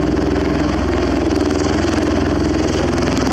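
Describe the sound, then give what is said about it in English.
A loud, steady engine roar from an Osprey tiltrotor aircraft making its approach to land on a landing pad, with a deep rhythmic throb and broad rushing noise holding constant throughout, no voices present. “So here is a very loud osprey.”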